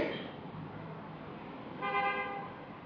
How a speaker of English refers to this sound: There's the sound of the rain and cars drifting up from the Bowery creating a constant white noise with bursts of percussive horns.